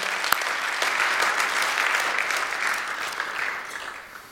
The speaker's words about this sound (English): So they're not here, but let's give them a round of applause anyway to say thank you, guys and girls.